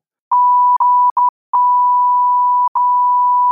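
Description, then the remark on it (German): A loud, steady censor bleep tone sounds alone for about three seconds, covering spoken words and broken by several brief gaps into short and long stretches, with no voices audible. “Sag am besten jetzt nochmal was und das piepen wir dann.”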